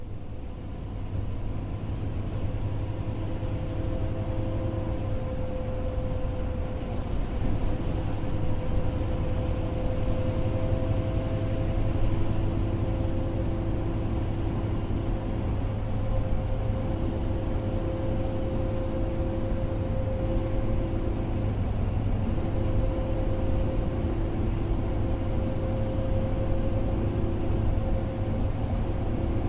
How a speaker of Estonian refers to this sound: ma olen praegu äh, bussis ja ma sõidan ühe linna poole.